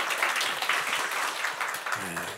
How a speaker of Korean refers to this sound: I didn't ask for applause, but everybody's applauding him.